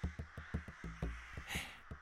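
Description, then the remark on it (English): A flock of crows flies overhead, cawing repeatedly in rapid, overlapping bursts, loud, with harsh raspy calls layered over one another and no speech. “Sky dark, wings flapping overhead. The crows, they're coming for me.”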